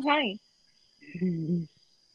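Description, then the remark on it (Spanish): A small vibrating device gives off a faint, steady high-pitched buzz that runs unbroken the whole time, while two short bursts of human voice rise over it. “Se ve vibrando. Ahí, se oye.”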